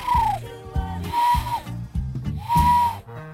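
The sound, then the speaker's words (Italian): A person imitates a turtle dove with three drawn-out, hooting whistled coos, evenly spaced and fairly loud, over a low, rhythmic background thumping. “So fare la tortora, signori!”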